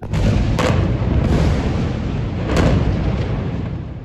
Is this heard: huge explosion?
yes